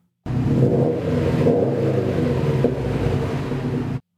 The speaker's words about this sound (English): No, but here's a perfect example of exhaust design massively changing the character of an engine. Take example the distinctive burble of a Subaru WRX or STI.